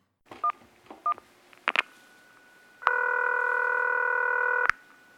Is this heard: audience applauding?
no